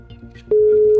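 Halfway through, a loud, steady telephone ringback tone begins and holds through to the end, a single unbroken pitch over faint background murmur, as a radio show calls the president of Rádio Universidade de Coimbra and waits for her to answer.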